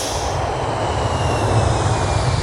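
A steady, loud airplane engine drone fills the whole stretch, a continuous low rumble with a broad roaring hiss above it, no voices present.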